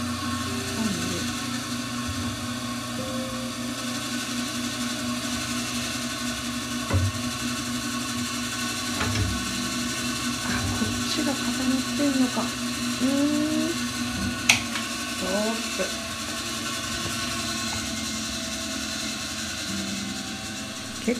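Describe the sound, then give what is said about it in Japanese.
A sewing machine's small electric motor, just switched on as a test, whirs steadily with a mechanical drone, joined by intermittent clicks and ratcheting gear sounds, loud throughout, with no talking. “いや通電しちゃっていいかなした今のうなりを動きそうだな。”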